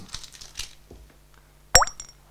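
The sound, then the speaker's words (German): A single sharp plop rings out as an ice cube drops into a glass of wine that is too warm, with a quick bright clink and splash, preceded by soft rustling handling noises. “Also ich glaube, da muss man Eiswürfel reintun.”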